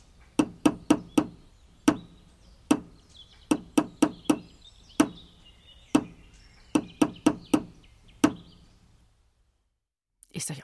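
Sharp hammer blows from two people building a tree house ring out in a lively, deliberate rhythm, quick bursts of three or four strikes separated by single knocks, loud, ending in a pause and a brief rustle.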